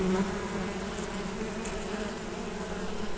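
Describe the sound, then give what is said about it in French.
A dense, steady drone of many honeybees buzzing together inside a beehive, a continuous low hum with no pauses, moderately loud throughout. “Le miel qui est dans le corps, c'est pour les abeilles.”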